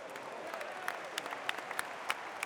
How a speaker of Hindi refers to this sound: कोहली के लगाए हर चौके पर सोनू और गोलू जोश में भर कर जोर जोर से तालियां बजा रहे थे